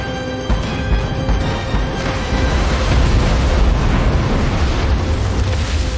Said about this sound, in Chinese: 一阵深水炸弹的轰炸，将这最后一艘敌船给炸毁。